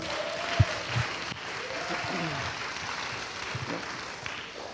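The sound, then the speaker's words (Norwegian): A church audience claps steadily for a few seconds to welcome a visitor invited to the audience, a dense patter of applause with a few brief voices murmuring underneath. “Så vi kan jo gi en applaus.”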